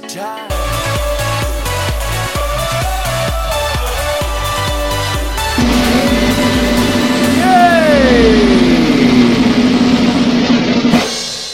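A loud electronic dance track plays with a pounding four-on-the-floor beat and bright synth chords, then builds into a sustained rising synth swell before cutting off abruptly.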